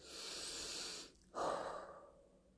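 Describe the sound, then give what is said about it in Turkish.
A single deep breath: a long airy inhale, a brief pause, then a fuller, gusty exhale that fades out. No one speaks. “derin bir nefes al, alıp vermek gibi hissettiriyor bana.”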